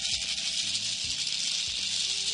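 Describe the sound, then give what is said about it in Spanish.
A maraca shaken steadily and continuously, producing a dense, bright, hissing rattle at an even level throughout, with no pauses and no voices. “Y bueno, este es como la parte en donde una maraca podemos nombrarla como la masculina y la otra la femenina. Son dos sonidos diferentes,”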